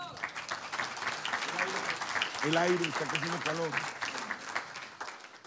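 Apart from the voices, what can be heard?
applause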